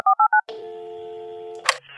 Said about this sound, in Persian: یه کمی جا خوردم دوباره شماره رو گرفتم